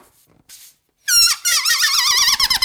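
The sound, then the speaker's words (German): A balloon, used in place of a party horn, squeals loudly as air escapes through its stretched neck, producing a shrill, wavering whine that stutters and warbles for over a second after a brief rustle and near silence. “Ich habe einen Luftballon, warte kurz.”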